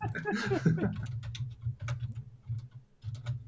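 Rapid, irregular clicking of keyboard typing, fairly quiet, with a low murmur underneath and a brief breathy voice-like burst near the start.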